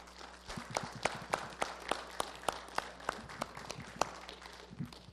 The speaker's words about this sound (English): I want us to give a big round of applause for our pastors of this church. Thank you guys.